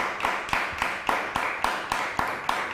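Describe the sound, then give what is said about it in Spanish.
Applause from a crowd clapping in a steady, even rhythm, about three or four claps per second, with a constant wash of sound between the sharp beats and no voices. The crowd gives a loud applause for the Eternal, God. “Así que, ¿por qué no damos un fuerte aplauso para el Eterno?”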